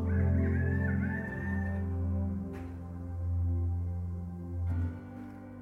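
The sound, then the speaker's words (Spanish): A person imitates a rooster crowing with one long, drawn-out, wavering vocal call that holds for several seconds, loud, with no other sounds around it. “Y el gallo sonó.”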